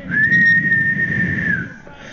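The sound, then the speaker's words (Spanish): A single long, shrill whistle blast from a street watchman, held steady for about a second and a half over a low background rumble, then fading away. No one speaks. “yo viví en Matamoros, Tamaulipas mucho tiempo y allá todavía se da ese oficio de vigilante que pasa por las calles con un silbato.”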